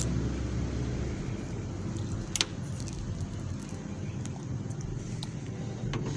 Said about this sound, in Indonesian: berisik amat motor ya